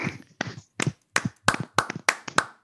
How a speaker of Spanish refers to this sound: Un aplauso. Too much, ¿eh? Un aplauso para ella.